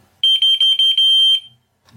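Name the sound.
wireless receiver alert signal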